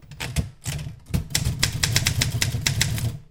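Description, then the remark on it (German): Keys strike a manual typewriter in a quick, uneven run of sharp clacks over a low mechanical rumble, fairly loud, with no voices, as random words are typed one below another. “Sie hieß Erika und ich tippte zunächst untereinander beliebige Wörter auf ihr.”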